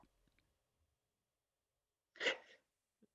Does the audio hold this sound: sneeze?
yes